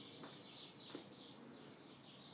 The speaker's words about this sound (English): Boy, those birds are loud, ain't they? They're like right outside the door or something.